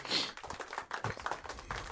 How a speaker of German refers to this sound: Und auf Platz Nummer 1 ein Spiel mit einem Gott und einem Halbgott und einem Halbgiant, nämlich God, God of, of War. War. Applaus! Wow.